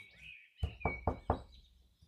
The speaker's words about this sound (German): Ich, ich stehe aber noch beim Palast. Ich, ja. ich klopfe mal an die Tür.